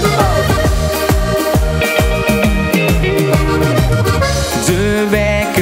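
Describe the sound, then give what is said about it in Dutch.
Instrumental opening of a Dutch pop song plays at full, steady volume, with punchy bass notes on a regular beat under layered keyboard and synth chords, no singing yet. “Ik dacht, ik ga hem gewoon draaien in de show.”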